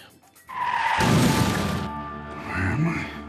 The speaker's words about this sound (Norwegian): En Secret Service-agent på jakt etter to kolleger som har forsvunnet, men idet han kommer inn i Wayward Pines, krasjer han, og det er ikke sikkert han noensinne kommer ut igjen.